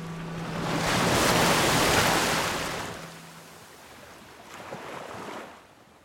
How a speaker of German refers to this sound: Wellen rollen gegen die Hauswände, zerstörerisch.